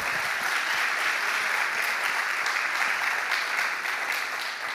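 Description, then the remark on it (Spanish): An audience applauds steadily, a dense, even wash of many hands clapping that holds at a constant loudness for several seconds, with no voices standing out above it. “pueden dar un aplauso ahí?”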